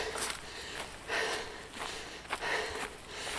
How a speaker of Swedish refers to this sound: Ja, ni hör ju vad flåsig jag är. Och hon har inte sprungit ett steg nere, Nej. utan hon har gått. Hon har gått upp för backen.